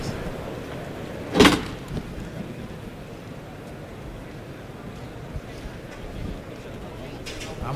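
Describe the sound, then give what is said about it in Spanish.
The heavy bull-pen gate (puerta de toriles) of a bullring swings open with one sharp, loud clank early on, releasing the third bull of the afternoon, from García Jiménez, for Paco Ureña; then a steady murmur of a large outdoor crowd and faint voices carries on underneath. “Rafael, el propietario del Escobón, de la cuadrilla de areneros que ya le da la, señal a Hermes para que abra la puerta de Toriles.”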